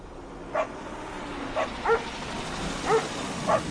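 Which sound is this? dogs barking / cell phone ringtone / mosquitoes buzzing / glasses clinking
dogs barking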